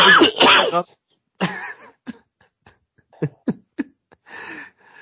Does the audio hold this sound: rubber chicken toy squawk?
no